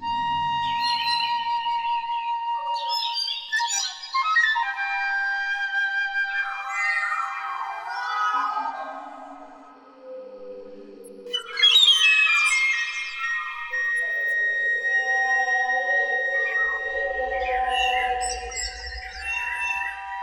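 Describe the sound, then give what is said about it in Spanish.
A piccolo imitates a bird's call with bird-like trills and swooping calls, filtered through a harmonizer that layers shifted harmonic copies of each phrase, sounding bright for about twenty seconds, with a low rumble entering near the end. “El pícolo imita el llamado del pájaro filtrado a través de un armonizador.”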